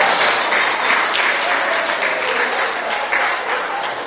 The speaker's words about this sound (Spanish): Un aplauso para